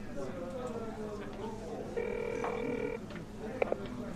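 A single telephone ringback tone: one steady, buzzy mid-pitched beep lasting about a second, over a low background murmur, followed by a couple of brief faint clicks.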